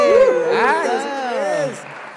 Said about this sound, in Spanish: Un aplauso, Armando.